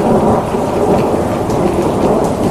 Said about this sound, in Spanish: El viento también tenía la fortaleza de los que acompañan las tormentas de verano en el norte de la Pampa.